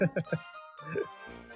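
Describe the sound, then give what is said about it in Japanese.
A few short vocal syllables come out fast while an echo effect is being tested, then a pause and a longer phrase. A heavy echo effect smears each sound, leaving ringing tails that linger through the gaps. “っちゃエコー聞いてますね”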